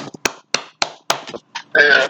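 Four sharp hand claps in a loose, uneven rhythm, with bits of voice between them, ending in a burst of louder vocal noise.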